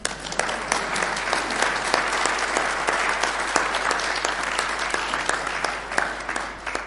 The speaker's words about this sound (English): Yes, round of applause for John O'Neill. organist.